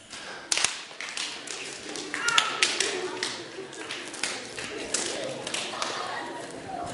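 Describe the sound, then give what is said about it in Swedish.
An audience high-fiving their neighbours: scattered, irregular sharp hand slaps overlapping one another, with a steady murmur of chatter underneath throughout. “Ta och high-fivea grannen medan jag dricker lite vatten här.”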